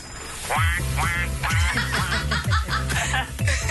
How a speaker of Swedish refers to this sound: Far, hur låter din väckarklocka?